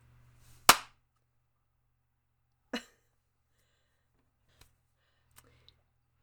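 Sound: hand clap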